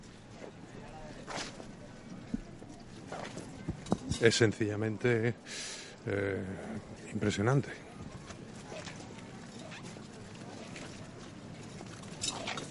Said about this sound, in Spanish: la llegada del Cristo de la Redención ante el convento de las Hermanas de la Cruz. Se detiene el trono, escuchábamos ese documento sonoro de los pasos de los hombres de trono